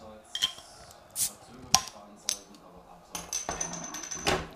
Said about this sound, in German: Also klingt, klingt schon anders, finde ich. Ganz anderes Geräusch. Ganz anderer Sound. Es ist auch, also ich verrate nicht zu viel, es ist eine größere Flasche, die vielleicht mm. auch anders resoniert.